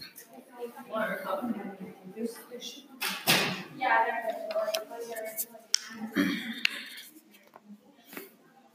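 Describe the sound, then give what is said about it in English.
Several sharp clicks and knocks as many people open and close doors, latching open and shut, stand out over muffled voices and background movement, a few seconds apart. “Sorry, a lot of people were just opening and closing doors.”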